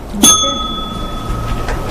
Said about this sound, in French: c'est à toi lorsque la cloche va sonner.